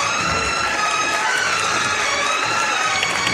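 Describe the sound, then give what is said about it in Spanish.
A crowd applauding from balconies and terraces on Calle Pureza for the passing Nuestro Señor de las Tres Caídas procession float: dense, steady clapping that holds at a loud, even level throughout, with a faint hint of cheering mixed into the wash of sound. “Y que ya ha levantado los aplausos, como decíamos, de todos esos balcones de los que hablábamos y de todas esas terrazas”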